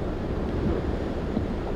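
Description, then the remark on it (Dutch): Steady rushing wind over a continuous roar of surf, with waves washing and breaking in a dense, even wash of noise and no voices. “En terwijl de wind om hem heen bruiste, de golven op de golven en op de strand stuk sloegen”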